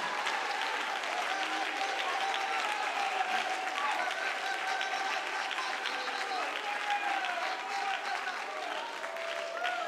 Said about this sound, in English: Come on, somebody clap your hands if you value the oil. Come on, somebody, lift up your voice if you value the oil.